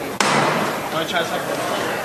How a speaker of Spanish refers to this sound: Se arría el paso, como te digo,